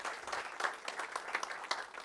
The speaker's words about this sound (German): Ja, könnt klatschen, wenn euch das gefällt.